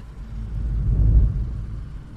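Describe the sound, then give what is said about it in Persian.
A black Samand car rushes by at high speed, its low engine rumble swelling to a peak midway and then fading off. No one speaks. “تا در ماشین رو بستم از پشت سرم یه ماشین هزار تا داشت میرفت یه لحظه فکر کردم زد در و کند اونم یه سمند مشکی بود”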